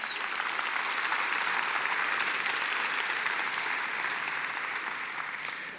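An audience applauds for parents steadily for several seconds, a dense wash of many hands clapping at even loudness that tapers slightly near the end, with no talking over it.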